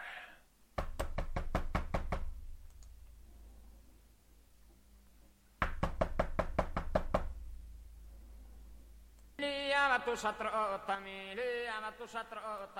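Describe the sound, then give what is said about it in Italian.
Two rounds of quick, loud knocking on a house door in Sarmanno a Picculoso, in the Logudoro, each a rapid series of about seven or eight raps separated by a pause, followed by a long ringing doorbell chime. “È ora di bussare.”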